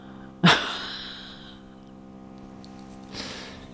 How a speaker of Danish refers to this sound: Der bliver boret. Ja. Det er jo meget sigende for emnet, kan man sige. Ja, helt sikkert. Så kommer der lige noget. Nogen, der borer.